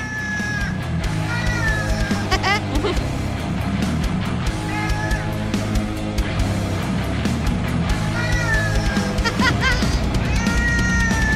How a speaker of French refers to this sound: Et ils se sont dit, pour récolter des fonds, on va faire une chanson avec des chats. Et donc évidemment, je vous ai sorti un petit extrait de cette musique.